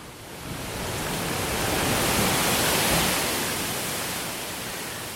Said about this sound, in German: Was hier ein wenig klingt wie auch Wellenrauschen, ist der Wind an der Südküste Mexikos, wo auch viele große Windräder stehen, deren mächtige Rotorblätter sich rhythmisch durch die Luft drehen.